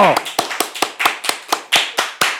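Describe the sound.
Steady rhythmic applause: about a dozen sharp claps in an even, quick beat as the show's audience claps in time in support, with a brief snatch of voice at the very start.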